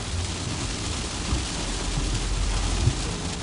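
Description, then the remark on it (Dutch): Hail pours down in a steady, dense roar of pattering impacts, with a few sharper hits standing out near the end; no voices are heard. “Jeetje, gaat hagelen”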